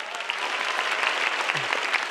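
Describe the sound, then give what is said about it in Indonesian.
Steady applause from an audience of nearly a thousand people at a stand-up comedy show, a dense wash of many hands clapping at an even, loud level throughout, with no voices standing out. “Boleh minta tepuk tangan sekali lagi teman-teman.”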